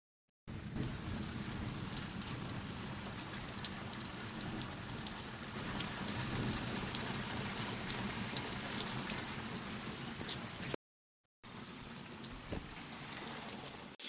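Heavy rain pours down on a farm in a steady, dense hiss with crisp individual drop spatters on top, breaks off for a moment of silence, then resumes just as loudly. No voices.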